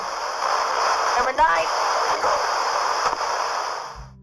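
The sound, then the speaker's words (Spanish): A spirit box radio scanning through static: a steady wash of loud radio static sweeps continuously for about four seconds, broken by brief clicks and dropouts as it scans, with a fleeting warbly voice-like fragment before cutting off. “Y la cosa es que, o sea, si estás falseando esto, ¿cómo lo haces dando vueltas en la estática?”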